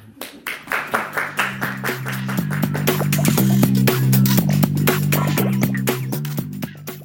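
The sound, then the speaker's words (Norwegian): An audience claps to thank two visitors for coming, sharp hand claps starting in a loose rhythm and thickening into steady, fairly loud applause, with a low sustained hum running underneath throughout. “Uh, vi er noen som kan klappe litt for det. Uh, så blir det litt applaus i hvert fall.”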